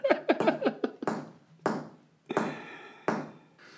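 Hammering from upstairs: a quick burst of about six ringing taps, then four heavier, evenly spaced blows, each sharp and loud with a short decaying ring. No one speaks.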